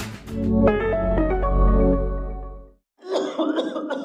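A fairly loud stretch of coughing in an advertisement for Mukosolwan cough syrup. It opens with a drawn-out, throaty, voiced sound, then after a brief pause comes a run of rapid, raspy cough bursts.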